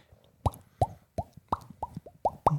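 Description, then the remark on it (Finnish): A quick run of seven bright, round plops, each a short pop with a rising bubbly tone, repeating in an uneven rhythm as fruit is picked up in a video game, clear with no talking. “Mä rakastan tuota Stardew Valleyn plop ääntä.”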